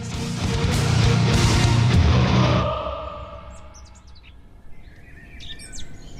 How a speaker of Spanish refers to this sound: Soy un ruiseñor. Cuando supieron que estando cautivos los ruiseñores solo cantamos de noche, me quemaron los ojos para que el canto durase todo el tiempo.